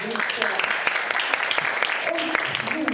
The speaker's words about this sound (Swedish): Alltså en applåd till denna